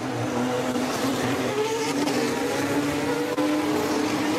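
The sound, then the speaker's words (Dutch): Formula 1 race cars roar together at a race restart after a red flag, with Verstappen leading the field, a dense, continuous engine drone with rising and falling pitches from several cars, loud and sustained without pause. “En we pakken de race weer op bij de herstart.”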